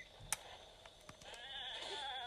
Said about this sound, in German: Ziege.